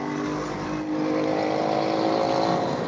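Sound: motorcycle passing by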